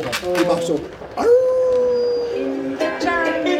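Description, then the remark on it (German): A long balloon is stretched and squeezed into squealing, whining tones mimicking a wolf's growl during a two-person theatre performance, with one sustained rising wail in the middle and choppier squeaks on either side, fairly loud. “Halt Zum Beispiel ein Wolf, den Hallihallo aus so einem länglichen Luftballon knurrt.”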